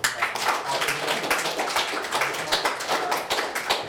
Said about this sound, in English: we want to um, thank all the authors who contributed, everyone for coming here this evening. Let's have one more round of applause for